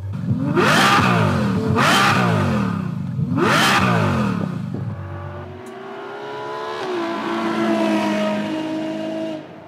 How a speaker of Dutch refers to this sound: We gaan eh, dan maar naar Ferrari. Hebben we een beetje geluid natuurlijk, lekker.